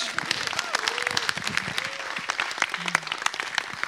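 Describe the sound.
Steady audience applause welcoming a speaker, dense overlapping claps from many hands at an even, sustained level, with a few faint voices murmuring and calling out beneath it.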